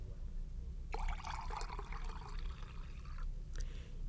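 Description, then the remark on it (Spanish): Water pours steadily into a one-cubic-decimetre cube, filling it with a litre, for about two seconds over a low background hum, the splashing tone rising as it fills, followed by a brief trickle near the end. “Ahora llénenlo de agua.”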